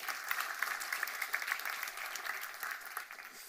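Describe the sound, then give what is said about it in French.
An audience claps steadily to welcome teenagers and children attending, a dense crackle of many hands sustained throughout with no voices over it, easing slightly toward the end. “On peut les applaudir. Merci d'être là.”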